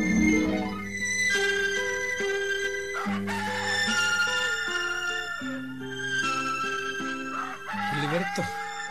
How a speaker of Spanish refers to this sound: cuando cantó el ronco, el gallo de Benvenuto Centeno, el juez del galope, y cuando todos los gallos del galope le respondieron,